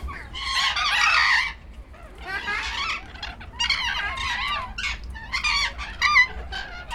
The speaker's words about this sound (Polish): To są papugi? Nie, to są patagonki. Mało osób decyduje się na ich hodowlę w warunkach domowych. Powodem jest ich wyjątkowa hałaśliwość.